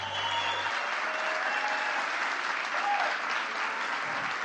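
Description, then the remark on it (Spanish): A crowd in Medellín applauds steadily for several seconds, a dense, even wash of many hands clapping at constant loudness without a break. “Que todavía no he hecho nada, no pueden aplaudir.”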